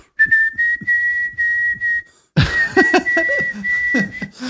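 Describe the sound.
A person imitates someone whistling, a sustained, fairly steady high note, breaks off briefly, then resumes whistling alongside fuller, busier vocal sounds underneath.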